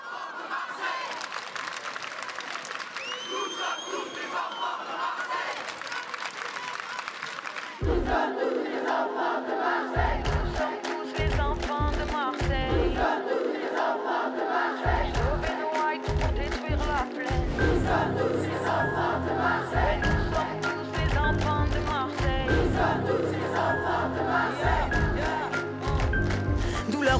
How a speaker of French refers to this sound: je propose d'ailleurs à nos auditeurs de consacrer ce thème euh, pour notre deuxième pause musicale